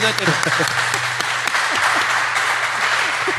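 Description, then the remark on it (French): A crowd claps steadily, a dense wash of many hands applauding, with faint voices murmuring underneath. “on les On les applaudit.”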